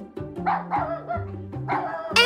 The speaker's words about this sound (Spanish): Ese es Nerón, el perro del vecino.